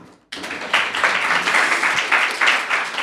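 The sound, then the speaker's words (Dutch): An audience bursts into applause for themselves after a brief silence, a dense, steady wash of many hands clapping at once, loud and sustained for about three seconds with no talking. “Dus eh, applaus voor jezelf.”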